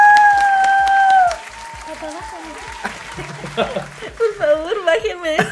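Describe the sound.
A short burst of audience clapping applause welcoming a guest, with a steady whistle-like tone over it, fading after about a second as voices start talking and laughing.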